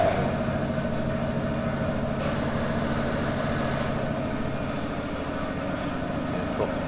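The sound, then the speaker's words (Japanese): A pump automatically transferring freshly pressed sake into a storage tank runs continuously with a steady mechanical drone, low rumbling hum and faint rattling texture, unchanging throughout with no voices. “あのある程度あのお酒があの絞られてあのタンクにたまると、あの正式なあの貯蔵用のタンクの方に、あの自動的にお酒を送ってくれるポンプの音です。”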